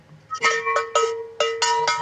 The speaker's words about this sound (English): sure you hit those subscribe buttons, smash the thumbs ups, ring the bell